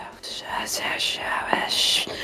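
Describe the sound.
A voice imitates eerie whispering heard in a cemetery, breathy hissed fragments like chopped-off words in four or five short bursts, fairly loud, with no clear speech.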